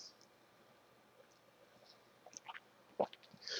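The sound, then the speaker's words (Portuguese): A quiet pause, then a few soft mouth and lip sounds and a brief gulp as someone takes a small sip of water, with faint clicks and no talking. “Deixa eu só tomar um golinho de água aqui.”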